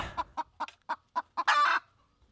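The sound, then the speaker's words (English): A chicken clucks in a quick series of six or seven short, clipped notes, then lets out one longer, louder squawk. It's clear, with no other sounds around it. “What, are you chicken?”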